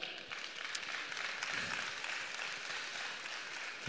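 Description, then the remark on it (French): An audience applauds steadily, a dense wash of many hands clapping at an even, fairly soft level throughout, with no voices on top. “On peut applaudir”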